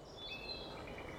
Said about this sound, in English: To you and me, outside sounds something like this. There are some birds in there, some bugs buzzing around.